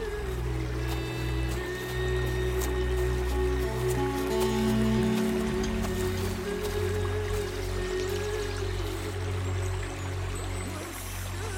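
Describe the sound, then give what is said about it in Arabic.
A small stream trickles and babbles steadily for the whole stretch in an orchard beside a shady walnut tree on a hot, sunny day, moderately loud, over a low droning hum, with no voices. “جلس على ضفة جدول الماء تحت شجرة جوز وارفة الظلال”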